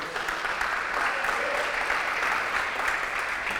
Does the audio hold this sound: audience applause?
yes